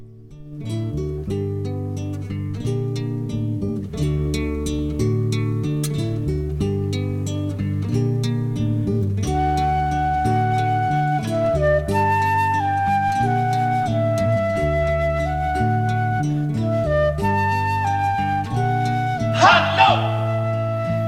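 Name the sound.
song played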